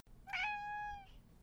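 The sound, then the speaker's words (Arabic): A cat lets out one clear, drawn-out meow, fairly loud, rising then holding steady before fading, followed by a faint brief trailing sound against a quiet background. “أنتم قطط جميلة جدا أريد أن أصبح صديقتكم موافقون؟”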